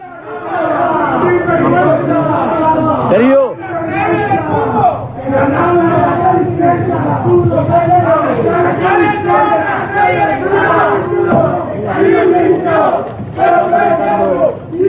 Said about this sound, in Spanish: son 20 tíos que fueron allí a increpar a los jugadores, a decirle que no arrastraran, eh, hablo de la, llegada al aeropuerto.